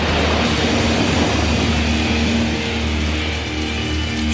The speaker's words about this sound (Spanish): Es esta que empieza con una lluvia.